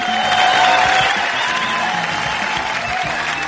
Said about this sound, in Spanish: que por alguna razón los aplausos hacia ella se prolongan de una forma excesivamente prolongada y no me puedo explicar por qué.